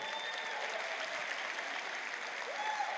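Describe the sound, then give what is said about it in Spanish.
An audience applauds themselves, a dense, steady wash of many hands clapping that holds at an even level from start to finish without pausing. “Date un aplauso.”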